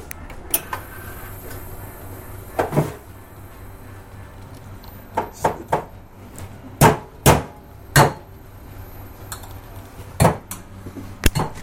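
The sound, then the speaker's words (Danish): An espresso machine runs with a low steady hum, broken by a dozen or so sharp metallic knocks and clinks spaced irregularly, with no one talking. “Nu kan vi faktisk høre øh, kaffemaskinen, eller espressomaskinen, køre her i baggrunden.”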